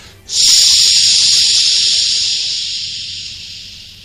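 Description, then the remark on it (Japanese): Air hisses steadily out of a bicycle tire punctured by a piece of wire, in a shopping-street arcade: a sharp, high, continuous rush that starts abruptly and slowly fades in strength over a few seconds, with no voices. “空気が漏れ、針金が刺さって、空気が、えー、ずっとね、漏れてるんすよ、マジで。”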